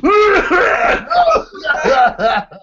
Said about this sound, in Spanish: Luego de repente, a media, a media frase se me sale un pinche, una tos, güey, y que tú la dejaste.